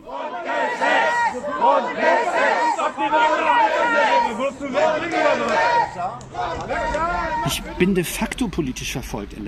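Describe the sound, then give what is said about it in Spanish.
A large crowd of protesters in the Federal Republic of Germany shouts the word "Grundgesetz" (Constitution) in loud, rhythmic unison, voices rising and falling together over a dense wall of chatter, with sharp bursts of noise near the end. “Por eso ahora gritan la palabra Grundgesetz, Constitución.”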